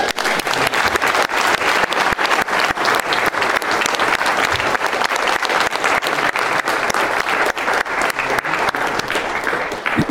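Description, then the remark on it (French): An audience breaks into sustained applause, dense overlapping clapping that stays loud and steady for the full ten seconds, with no talking over it. “Est-ce qu'on peut euh, juste les applaudir?”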